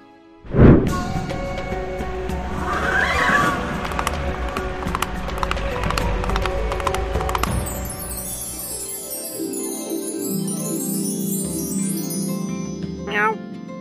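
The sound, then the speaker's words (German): A horse gallops past with rapid, rhythmic hoofbeats and a whinnying neigh, loud, before the sound gives way to a stretch of soft tonal music. “Wenn du jetzt hier Catwoman bist, dann will ich Pipi Langstrumpf sein und mit kleiner Onkel dorthin reiten.”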